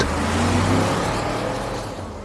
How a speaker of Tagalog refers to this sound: Nang matauhan, pinatakbo ko ulit ang kotse ko tsaka pinaharurot.